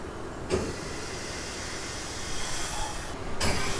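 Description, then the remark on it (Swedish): A gas pump starts with a click as a man presses a green start button, then runs as a steady, fairly loud hissing rush, filling a gas-powered car's tank before cutting off abruptly near the end. No one speaks. “Så trycker han på en grön knapp som säger start.”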